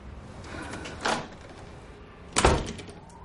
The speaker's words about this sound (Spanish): Elliot mantiene la puerta abierta.